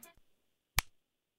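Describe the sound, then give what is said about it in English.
A single sharp slap of a hand against a bare shoulder, a short fleshy smack that stops quickly, preceded by faint rustling and no speech. “so the first one that sounds like this is the shoulder slap”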